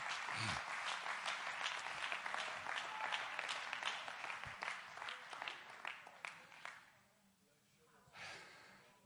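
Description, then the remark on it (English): A church audience claps their hands in praise to the Lord in a steady, rhythmic beat, many hands sharp and bright together for about seven seconds before the clapping trails off into quiet murmuring. “Come on, clap your hands to the Lord and give Him praise right now.”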